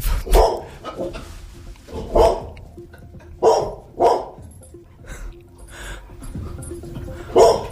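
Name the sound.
dog barking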